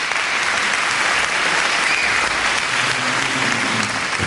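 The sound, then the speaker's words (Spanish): Sustained applause from an audience fills the whole stretch, a dense, steady wash of many hands clapping at once, fairly loud, with no speech over it. “aplauden, aplauden y está este tío ahí roncando.”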